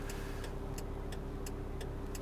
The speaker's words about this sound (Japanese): あれなんか今日に限ってなんかやたらと車が走ってますねなんでこんな道をこんなに車が走ってるんだろう